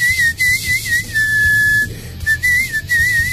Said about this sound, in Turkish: Islık çalarak ya. Islık şarkı çalmış. güzel bir e, İsveç türküsü.